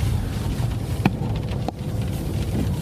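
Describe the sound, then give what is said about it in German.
Steady low rumble of a car interior on the move with light rain, broken by two brief swishing sweeps of a windshield wiper about half a second apart. “Äh, es regnet leicht. Der Scheibenwischer”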